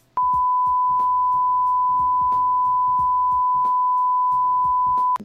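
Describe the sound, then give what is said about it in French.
A single long censor bleep, a steady high-pitched tone held for about five seconds, loudly covering someone's speech that gives away the ending of a film, which can still be faintly heard talking underneath. “Tu mettras des bips. là, faudra biper, hein.”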